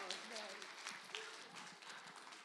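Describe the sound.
An audience breaks into steady, dense applause for a person's job well done, many hands clapping at once in a continuous wash, with a few voices calling out underneath.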